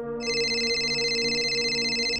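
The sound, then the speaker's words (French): A phone rings with a bright, sustained electronic tone that holds steady for about two seconds, loud, with no voices, as its owner is returning to Paris one evening in September 2005. “Il est justement en train de rentrer à Paris quand son téléphone sonne.”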